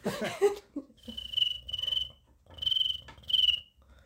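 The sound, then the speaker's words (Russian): A person imitates a cricket, making four shrill, buzzing chirps in two pairs, fairly loud, after a brief murmur of voice at the start. “фантастически делает звук сверчка.”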